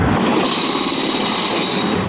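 A train rolls past at the 107th Avenue railroad crossing with a continuous broad rumble and rattle, topped by a thin, steady high-pitched wheel squeal that holds throughout. No one speaks.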